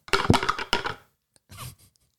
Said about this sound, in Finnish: Muista heittää se noppa silleen, että se kuluu kivaa ääni tuohon mikrofoniin. Joo. Me ollaan suunniteltu tämä tällä, että tästä tulee tämmöinen ASMR-nopan heittokokemus samalla.